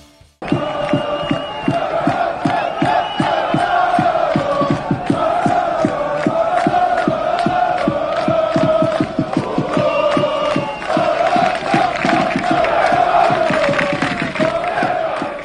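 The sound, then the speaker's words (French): A loud "Normandico" radio show jingle of a crowd chanting and cheering over fast, steady rhythmic claps or stamps, the voices rising in pitch toward the end and sustained for about fifteen seconds. “Les activistes saison 2, c'est parti et tout de suite jingle Normandico.”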